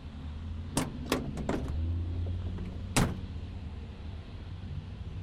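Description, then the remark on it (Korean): A truck door unlatches with a few sharp clicks and rattles, then shuts with a solid thump as a man opens it slightly and gets in to sit down, all over a steady low engine rumble as the truck slows at the first bend of the highway. “남자는 자리에서 일어나 살짝 문을 열고 안으로 들어가 앉았다.”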